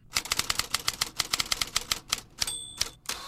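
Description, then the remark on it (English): Rapid, clattering typewriter keystrokes in a steady rhythm, crisp, used as a sound effect introducing a baseball bulletin, ending with a bright carriage-return bell ding and a final clack; no voices. “the last man, still using a typewriter for all of his correspondence”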